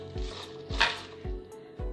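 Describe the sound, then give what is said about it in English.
Handfuls of spinach drop into a blender jar while making a smoothie, making four soft, muffled thumps about half a second apart with a light leafy rustle, with no talking. “So what I just do is just add everything to my blender and blend it up.”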